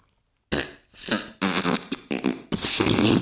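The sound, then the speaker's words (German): A voice blows a run of loud, wet, sputtering raspberries imitating farts, used as a 'fart language' to order food, three long bursts in quick succession after a moment of silence, with no words spoken. “Woher weißt du denn, wie diese Pupsprache funktioniert, Long John?”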